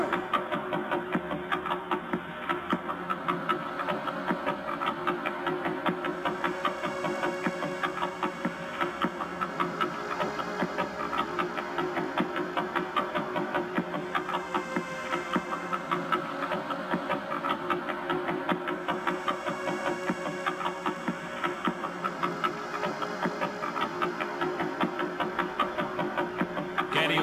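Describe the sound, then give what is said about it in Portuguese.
Sonified millisecond pulsar signals: pulses so rapid they merge into a steady, machine-like buzzing drone that runs unbroken throughout, with a faint high whine fading in and out above it. “Agora vamos inserir as estrelas milissegundas, aquelas que vimos por último.”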